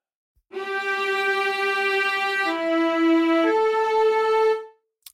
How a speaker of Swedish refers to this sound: Och sen går vi vidare och då är det viola. Och den låter så här.